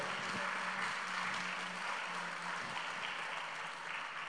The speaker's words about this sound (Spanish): Dele un aplauso a Jesús, por favor, en esta noche.